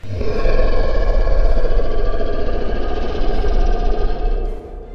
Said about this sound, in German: Und als es das, äh, sein Maul öffnet, einen, einen Schrei herauslässt, einen markerschütternden Schrei.